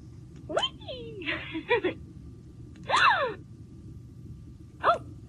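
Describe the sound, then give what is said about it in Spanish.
Several short, breathy gasping and groaning vocal sounds from a toy doll, made by pushing a button on the doll, spaced out over a few seconds with a longer wheezy breath in the middle, clear against a low background hum. “Like a gasping.”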